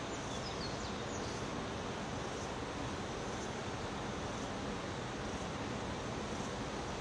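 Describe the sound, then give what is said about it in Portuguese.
A waterfall rushes in a steady, dense roar of water that holds constant and unbroken throughout, filling the whole scene with no voices. “Das águas da cachoeira, dos animais, dos pássaros”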